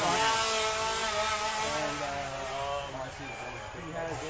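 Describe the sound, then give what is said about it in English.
A chainsaw drones steadily throughout, its rough, buzzing engine note holding at a fairly loud level for the full few seconds, slightly easing and wavering toward the end. “Chainsaws. That's uh, not what I want to fucking hear right now.”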